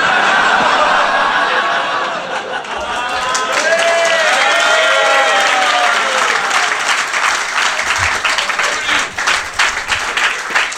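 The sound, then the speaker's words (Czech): A live audience at a stage show breaks into sustained applause mixed with whoops and cheers, friends cheering on a performer, dense clapping for about ten seconds, with scattered laughter and shouts rising above it. “Ty ví, kámoši ti tady fandí všichni, podle mě.”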